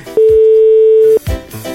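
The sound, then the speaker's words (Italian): A single loud, steady ringback tone sounds for about one second while a phone call is placed, a flat electronic beep followed by brief muffled background noise. “Vediamo se risponde. Mi sa che non risponde.”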